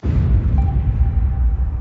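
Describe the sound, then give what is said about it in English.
A bomb explosion, a bomb dropped by the Germans: a loud, deep rumbling roar that starts abruptly and keeps booming for about two seconds, with a faint high whine threading through the middle. No one speaks. “Oh, some kind of bomb thing.”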